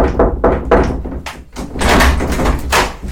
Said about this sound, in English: I drag myself off the floor and stumble towards the principal's office. My hand quivers as I gently Tap, tap on his door.